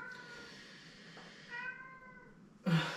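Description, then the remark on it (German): A cat lets out a long, drawn-out meow, then a second shorter, slightly louder one, alone, before a sudden louder burst of noise cuts in at the end. “Was ist los? Katze?”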